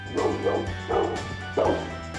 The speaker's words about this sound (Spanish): Si ladra, te estará avisando de que algo extraño está pasando.